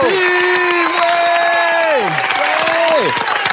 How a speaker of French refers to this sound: Euh, on vous applaudit super fort. merci à vous. Bravo.